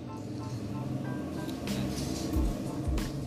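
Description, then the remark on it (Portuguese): A motorcycle engine drones by in a city in the Fortaleza metropolitan region, Brazil, its low rumble steady with a couple of brief revving swells, over a continuous background of outdoor street noise. “Passou outra moto.”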